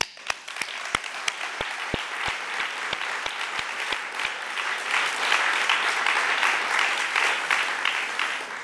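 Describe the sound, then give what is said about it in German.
Audience applause at a forum, given in thanks to its supporters, fills the whole stretch, opening with a few sharp, evenly spaced claps before swelling into dense, steady clapping that stays loud and sustained with no voices. “An Sie alle einen ganz herzlichen Dank für die Unterstützung dieses Forums und auch einen heftigen Applaus.”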